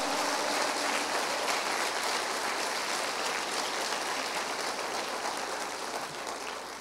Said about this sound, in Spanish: Dice que Él va a perfeccionar esta obra que comenzó en nosotros hasta el final. ¿No le puedes dar un aplauso al Señor por eso?